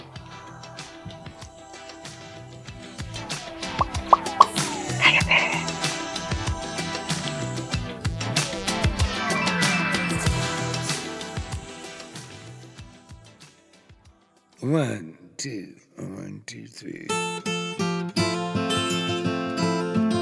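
A country-style song plays loud and full with twangy instruments, fades briefly near the end, then a short burst and a fresh strummed passage pick up again, with no talking over it.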